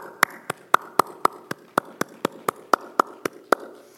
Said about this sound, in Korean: 우리에게 귀하고 좋은 어머니를 허락하신 하나님께 우리가 먼저 감사와 찬양의 박수를 올리도록 하겠습니다.